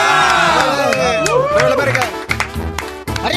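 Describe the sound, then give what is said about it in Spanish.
A crowd cheers loudly, with many overlapping voices shouting and whooping in rising and falling pitches, while scattered clapping runs underneath throughout the few seconds. “¡Aplausos!”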